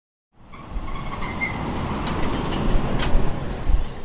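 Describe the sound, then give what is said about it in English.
A steady low engine drone and broad road rumble fill the space inside the cab of a truck called Buster driving on the highway, with faint rattles and swells of noise throughout. “What's the truck we're riding called?”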